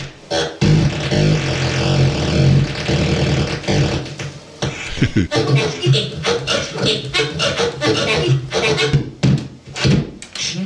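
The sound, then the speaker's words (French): Sounds of a circuit-bent plastic SpongeBob electronic toy, taken apart with parts of its circuit connected together: a loud, continuous run of glitchy, stuttering electronic buzzes and warped, voice-like squeals, with abrupt clicks and shifting pitched tones and no pauses. “Par exemple, écoute ce que fait ce mec avec son bob éponge en plastoc.”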